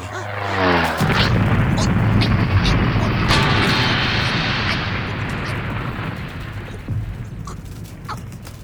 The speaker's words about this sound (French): Un immense oiseau venait de faire un atterrissage en catastrophe devant eux, et heureusement, il s'était planté dans un matelas de neige.